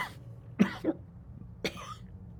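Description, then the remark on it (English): Someone acts out a cough: two quick hacking bursts, then a third after a short pause, with no talking. “and you see him like cough up and he pulls up a handkerchief and he's got a little bit of blood in the corner of his mouth.”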